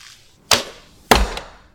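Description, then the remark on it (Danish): Two sharp thwacks about half a second apart as arrows shot from a bow strike an archery target, the second carrying a heavier thud and a faint rattle after it. No one speaks. “Der skyder man pile mod en skydeskive, hvor man får forskellige point, alt efter hvor man rammer.”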